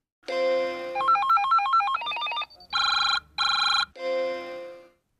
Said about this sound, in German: also Telefon klingeln oder so und dann. Telefon klingeln? So ein Sound vielleicht von einer Nachricht oder sowas. Genau, wenn eine E-Mail reinkommt